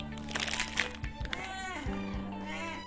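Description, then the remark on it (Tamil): A cat meows insistently, its cries rising and bending, while a peanut candy (kadalai mittai) plastic wrapper is crumpled, crinkling and rustling in the background. “அதே மாதிரி தாங்க இவனும் கவர் கசக்கிற சவுண்டு கேட்டாலே கால் கிலோமீட்டருக்கு அந்த பக்கம் இருந்தாலும் சரி கால் டாக்ஸி பிடிச்சாவது வந்துடுவான் ஸோ அந்த அளவுக்கு வெறி மாப்பிள்ளைக்கு இப்போ கடலை முட்டாய் கவரை கசக்கி காட்டுறேன் எப்படி கதறான் மட்டும் பாருங்க”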